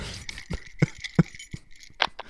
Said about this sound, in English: Now I'm gonna get the get the keys out here.